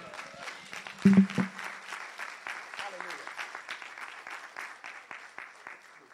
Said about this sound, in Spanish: Dar un aplauso al rey.